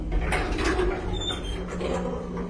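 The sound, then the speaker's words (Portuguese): A steady mechanical rumble with a soft sliding whoosh of elevator doors gliding open, continuous and fairly quiet with faint higher scraping tones over a low hum. “As portas se abriram.”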